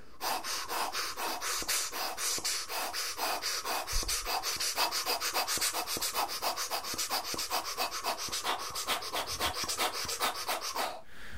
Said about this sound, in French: donc là sans les doigts, il y a toujours une respiration, même sur cet instrument, que je trouve très intéressante. Et donc là, l'instrument ne joue pas, c'est juste la ventilation de l'instrument.